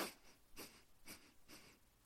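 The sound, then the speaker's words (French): A quick series of short, sharp, jerky inhales through the nose, about five in a steady rhythm roughly half a second apart, fairly quiet, with no talking, demonstrating very brief nasal inhalation. “oui, si vous avez une respiration très saccadée. C'est-à-dire que le temps d'inspire avec les narines sera très très bref.”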